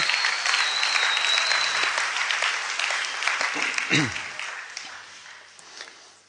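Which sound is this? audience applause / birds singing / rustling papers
audience applause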